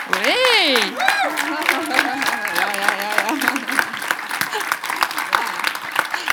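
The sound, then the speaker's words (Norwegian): An audience gives a guest a hearty round of applause, a steady dense patter of many hands at moderate loudness, with a voice calling out over the applause during the first few seconds. “Tusen Takk, så vi gir jo en skikkelig klapp.”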